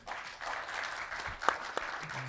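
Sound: audience applause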